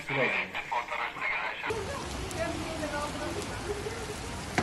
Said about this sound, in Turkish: Yaz yağmuru bazı illerde serinletti, bazılarındaysa sele dönüştü.